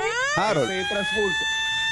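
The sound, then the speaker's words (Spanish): A phone emergency alert alarm sounds during a nationwide test, a steady, piercing electronic tone that sweeps upward and then holds for two seconds while a person talks over it. “Sí me va a llegar esta alerta, que es una especie como de alarma.”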